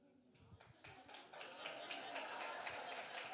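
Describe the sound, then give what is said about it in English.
An audience breaks into applause, starting as scattered claps and swelling after a moment into steady, dense clapping that continues at a fairly loud level. “Don't be clapping.”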